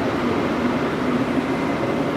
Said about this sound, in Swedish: Ni får, ni får njuta av ljudet av en gammal Mack-truck här bakom som står på tomgång. Här kommer en till. Det är ju så med amerikanska bussar och lastbilar att de har en tendens att låta så förbannat.